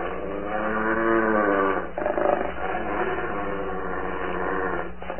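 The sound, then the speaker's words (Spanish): Low, menacing growling from wolves rumbles continuously for several seconds, rough and sustained with a brief break midway, with no speech over it. “Solín queda inmóvil, mirando a los lobos que gruñen amenazadores, mostrando los filosos colmillos.”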